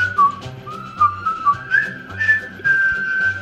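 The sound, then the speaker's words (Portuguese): A person whistles a war film theme tune, a clear mid-pitched melody of short bouncy notes rising to longer held ones, fairly loud, with no talking. “vou começar de um filme que a música tema é foi bem marcante.”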